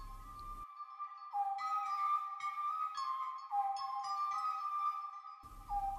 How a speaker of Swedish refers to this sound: På andra sidan lampan hade någon grävt ner sig i snön i en bekväm grop. Någon som låg och tittade upp i den allvarliga vinterhimlen och vissla, mycket sakta, men i alla fall.